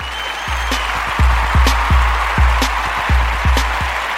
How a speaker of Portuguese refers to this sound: Ronald saindo fora, salva de palmas para quem é guerreiro.